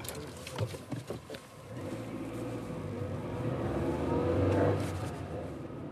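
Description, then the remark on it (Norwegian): A taxi drives steadily south toward Oslo, its low engine drone and road rumble swelling toward the end, with a few clicks and knocks at the start and no talking. “Da vi setter oss i baksetet, spør drosjesjåføren etter bestillingskvitteringa”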